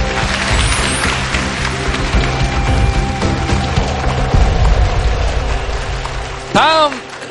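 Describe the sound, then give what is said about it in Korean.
An audience applauds steadily for several seconds, a dense, even crackle of many hands clapping, with a brief swooping tonal sound rising above it near the end. “어, 그런 분들에게 는 박수 다시 한번 부탁드리겠습니다.”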